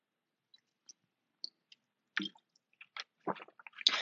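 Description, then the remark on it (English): Quiet wet mouth sounds: a few small clicks and smacks, then a cluster of squishy slurping and swallowing noises as someone sips water, with no talking. “I'm going to take a sip of water.”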